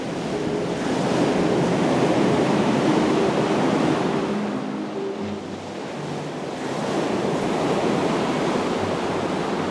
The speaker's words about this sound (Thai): มีเสียงคลื่น ครั่นครื้นครวนครางอยู่เบื้องล่าง